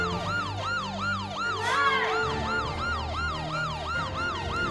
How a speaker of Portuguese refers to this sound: Vamos embora, vamos embora, a polícia chega. É isso, pessoal, essa sirene é da polícia.